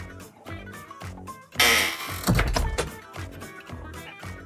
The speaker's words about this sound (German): der Sound von der Tür ist super. ich habe es mir gerade gedacht. Ich dachte, ah geil, jetzt hört sie wahrscheinlich den Sound von der Tür. Vielleicht wird das der neue ähm, Opener.